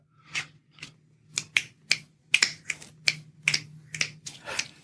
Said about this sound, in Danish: Og den knipser vi så ikke på. Det, der sker her til sidst, det er, at man tidligere har fået at vide, at man skal knipse, når man anerkender øh, et eller andet.